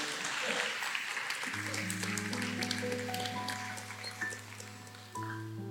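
A crowd applauds steadily, a dense wash of many overlapping claps lasting throughout, while sustained low organ-like musical tones enter about a third of the way in and hold beneath the clapping.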